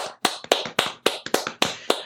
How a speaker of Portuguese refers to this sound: Vamos puxar uma salva de palmas.